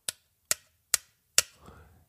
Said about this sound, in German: Sie probierten es weiter, doch es wollte sich nichts bewegen. Mit der Schaufel klopfte Viktor auf das Loch.